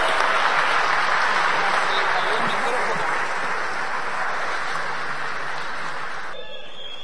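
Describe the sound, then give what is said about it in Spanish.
An audience at a business organization event claps steadily for several seconds, a dense, loud wash of applause that fades slightly toward the end before a voice begins. “Bueno, les damos un fuerte aplauso.”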